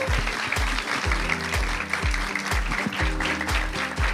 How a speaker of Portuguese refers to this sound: Vamos lá, mais palmas para você